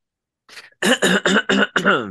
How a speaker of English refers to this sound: Let me clear my throat. Oh. Have mercy, babe. I hope you don't mind. Let me clear my throat.